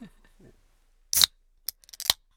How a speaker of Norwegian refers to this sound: Åh, oh, det var altså den deilige lyden av en kald Ringnes som åpnes.